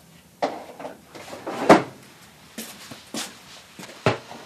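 A drawer is pulled open and rummaged through to fetch a small medal, with several sharp wooden knocks and scrapes, spaced irregularly over a few seconds, with no voices.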